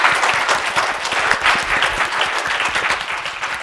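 An audience applauds steadily, many hands clapping in a dense, even wash of sharp claps that holds at a fairly loud level throughout without speech.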